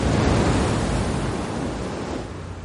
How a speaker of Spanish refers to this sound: En el mar, el barco de Michael surca las olas.